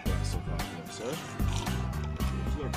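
Someone gulps down a glass of water in quick, steady swallows, with wet throaty sounds and slurping between each gulp and no pause for breath.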